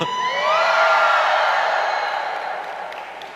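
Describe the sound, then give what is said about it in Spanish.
A crowd of women in an audience lets out a loud, sustained joyful shout, many high voices blending into one cheering roar that swells quickly and slowly fades over a few seconds. “A ver, señoras, den, un grito de júbilo.”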